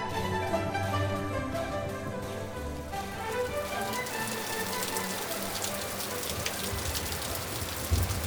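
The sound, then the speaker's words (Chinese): Rain falls on a wedding procession in a steady, dense hiss with scattered patter of drops, growing heavier and crisper as it goes on, while a faint tonal sound fades out in the first few seconds. “迎亲的队伍走着走着，老天爷竟然不赏脸，下起了雨。眼看着雨势越来越大，只好把花轿暂停在路边的春秋亭。”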